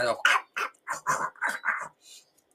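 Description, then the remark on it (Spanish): A voice imitates a dog's guttural growl to demonstrate pronouncing a throaty sound in Spanish, with a quick run of about seven short, raspy bursts, fairly loud, ending with a fainter final rasp. “Como un perro.”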